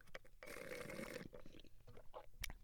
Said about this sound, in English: Starbucks with a broken straw. Uh, if you heard that slurp, I'm not getting all slurpy.